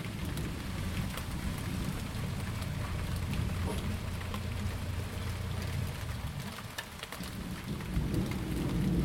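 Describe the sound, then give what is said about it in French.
Steady heavy rain pours down while deep thunder rumbles low and continuous underneath, swelling and fading across the stretch, with no voices present; a summer thunderstorm breaking, recorded on a terrace with a handheld Zoom recorder. “Cet été, j'ai ressenti un apaisement soudain, un océan de tendresse lorsqu'un orage a éclaté.”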